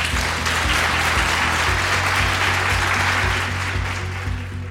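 An audience at the Happiness Festival applauds steadily, a dense wash of many hands clapping at once, loud and sustained for several seconds before easing slightly at the end, with no talking over it.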